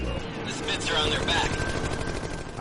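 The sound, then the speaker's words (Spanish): Rapid bursts of gunfire rattle over a steady, loud drone of aircraft engines as German fighters attack a formation of Fortress bombers and the bombers' gunners fire back, a dense, continuous din of aerial combat with no pauses. “De repente, disparan por arriba y por abajo.”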